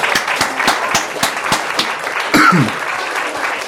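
A steady burst of applause, dense crackling claps from several people, with some sharper rhythmic claps standing out early on and a brief vocal sound near the end.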